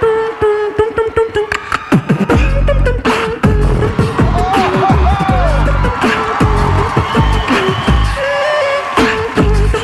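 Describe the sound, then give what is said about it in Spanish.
A beatboxing group, winners of America's Got Talent in 2019, performs entirely with their mouths, layering loud, rapid kick- and snare-like hits over a deep bass and a steady hummed tone, while sliding vocal melodies weave through the beat. “Pues voy a dejarles escuchar los que ganaron el American Got Talent en 2019, Beatboxing Group”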